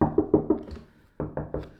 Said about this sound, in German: Klopf auf Holz. Alle schön auf den Kopf geklopft. Ich habe ihr mitgeklopft.